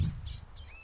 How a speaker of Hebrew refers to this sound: הבהלתי פה איזה מישהי, איזה ציפור.